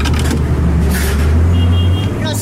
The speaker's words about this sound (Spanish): Esto fue lo que captaron los micrófonos que instalamos en el Transmilenio